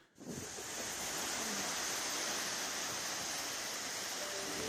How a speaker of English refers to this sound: It is huge. The amount of water coming through these areas is absolutely staggering.